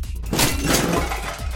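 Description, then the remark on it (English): A loud burst of shattering glass as a shockwave destroys alcohol bottles: a dense crash of breaking bottles lasting over a second with bright, crackling high-end debris and low thuds underneath, no voices present. “so this shockwave goes through a lot of the alcohol is destroyed tables and chairs are flipped”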